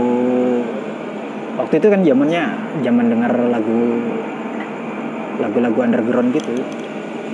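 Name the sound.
noise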